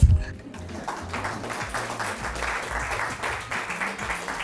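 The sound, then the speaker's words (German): An audience at the Club der polnischen Versager applauds in a steady, dense wash of clapping that holds at an even, fairly loud level throughout, with a low murmur of voices underneath. “Jetzt wäre hier Zeit für Applaus.”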